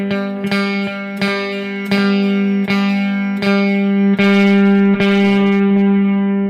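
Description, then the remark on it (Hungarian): A distorted electric guitar strums a sustained chord again and again at a steady pace. Each fuzzy, buzzing attack rings into the next. It is loud, with no talking. The distortion comes from turning up the input level with a pedal's 'color' knob. “szóval van egy ilyen szín, itt azt hiszem ennek egy speciális funkciója van, ez a bemeneti jelszintet csinálja. Ha az szintén tudom. ugye egy, lehet vele egy torzítgatni Igen. egy ilyen cukibuta módon.”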